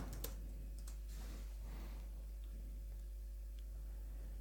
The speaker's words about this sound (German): Aha, also so kann ich tippen.